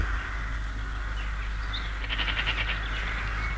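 A steady forest background hum in a forest near Gordium, the capital of Phrygia, with soft bird chirps and brief twittering calls rising over it, a short burst of repeated high tweets in the middle, no voices present.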